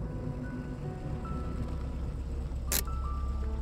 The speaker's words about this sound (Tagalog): Oh, bakit may tinabi ang kotse?